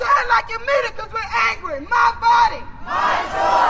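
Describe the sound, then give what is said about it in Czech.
A crowd of about a hundred protesters on the square in front of the local court in Morgantown chants "It's my choice, it's my body" in loud, rhythmic bursts of many voices shouting together, each phrase rising and falling in regular beats, ending in a broader roar of raised voices. “Sešla se tu asi stovka lidí a je tu cítit směs odhodlání, smutku a vzteku.”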